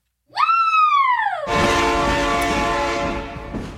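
A loud train horn blares with a falling, Doppler-like pitch, then gives way to the rumbling roar of a passing train that slowly fades. No talking.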